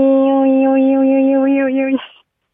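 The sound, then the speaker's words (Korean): A radio caller imitates the call of a cicada from Uidong with one loud, steady, buzzing vocal drone held for about two seconds at an unchanging mid pitch, then cut off with a short breathy trail. “우이동 우이동 매미 갑니다.”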